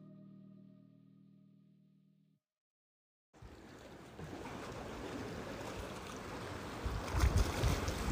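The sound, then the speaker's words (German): After a fading low drone and a moment of silence, the steady rushing wash of ocean waves on the shore rises up close and grows louder toward the end, with no voices. “Ich bin direkt am Meer und ich nehme jetzt einfach mal den Raum von ungefähr 15 Sekunden, 20 Sekunden, damit du einfach mal hier ankommen kannst in dieser Energie und das grenzenlose Fließen genießen kannst, die Wellen genießen kannst.”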